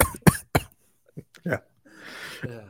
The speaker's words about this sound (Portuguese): Eu não tô acostumado a botar nada no meu olho. O cara meio tosse, tá ligado?